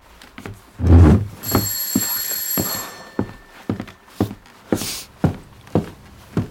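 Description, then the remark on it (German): An apartment doorbell rings once with a bright, sustained electronic tone lasting over a second, followed by a series of steady footsteps moving across the floor. “Auf einmal klingelt es an Noras Wohnungstür.”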